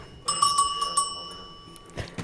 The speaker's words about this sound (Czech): Zvoní nám tu švýcarský kravský, kravský zvonec.